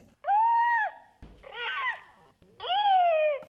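Three high, tonal electronic cries like a baby seal from a Paro therapeutic robot seal, a fluffy robot with long eyelashes and sensors; the first and last long and steady, the middle one warbling, clear with brief pauses between and no talking.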